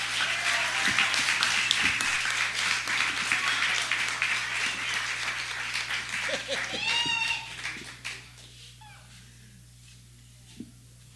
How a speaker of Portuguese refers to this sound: Uma salva de palmas para ela.